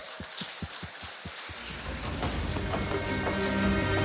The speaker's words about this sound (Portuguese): Dá uma salva de palmas para o Senhor Jesus.